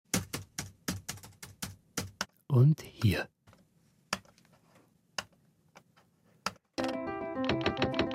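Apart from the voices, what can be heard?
computer mouse clicks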